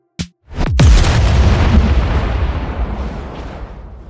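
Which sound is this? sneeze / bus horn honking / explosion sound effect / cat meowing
explosion sound effect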